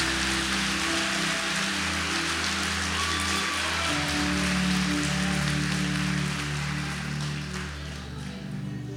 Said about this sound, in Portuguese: Será que os irmãos que têm fé vieram a esse culto dessa noite? Se é para Jesus, bota pressão nessas palmas.